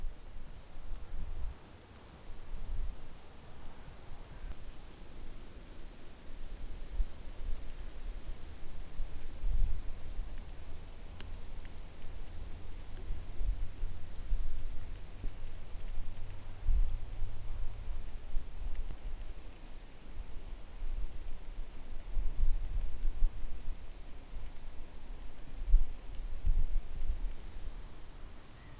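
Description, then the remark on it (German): A steady, hissing rush of willow leaves rustling in the wind near water, the elongated leaves rubbing together, swelling and easing with stronger gusts, with a low windy rumble underneath. No voices, just a continuous airy wash of sound. “Nahe am Wasser gebaut, hört man meist gerade noch ein leises Flüstern der länglichen Blätter, die aneinander reiben. Nur ab und zu rauschen sie in stärkeren Windböen auf”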